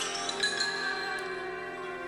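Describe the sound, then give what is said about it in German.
Soundtrack music drenched in heavy reverb, with sustained, shimmering tones and faint bell-like glints blurring into a steady wash at moderate volume, with no voices. “Wir hören diesen Hall. Die, dieser Hall soll so ein bisschen diese Unterwasserwelten widerspiegeln, so ein bisschen mhm.”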